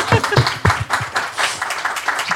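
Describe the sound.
An audience bursts into steady applause, many hands clapping at once in a dense, crackling patter that stays fairly loud throughout, with a few voices mixed faintly into the noise.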